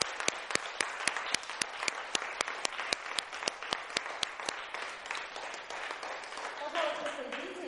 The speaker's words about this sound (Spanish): Aplausos a todas.